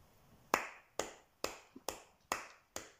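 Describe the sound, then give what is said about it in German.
Six sharp hand claps at a steady, fairly quick pace, each a crisp crack that fades quickly, with no voices, applauding FC Bayern's 1-0 win over Paris Saint-Germain in the Champions League final. “Ja. Applaus.”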